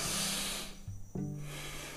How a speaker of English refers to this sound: The second thing is you can start belly breathing. Belly breathing is when you breathe in and breathe out.